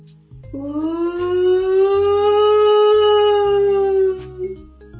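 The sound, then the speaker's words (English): A long, terrifying scream rings out from the woods, a loud sustained wail lasting several seconds at a steady, slightly rising pitch before cutting off, over a low rumbling background. “they heard a long, terrifying scream coming from the woods.”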